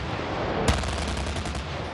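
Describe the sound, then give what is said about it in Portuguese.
A single sharp, loud blast of gunfire cuts through a steady roar of firing, with faint rapid shots rattling on afterward, during a South Korean military exercise in Pocheon near the North Korean border, using tanks, cannons and fighter jets. No voices are heard. “Foram usados tanques de guerra, canhões e caças.”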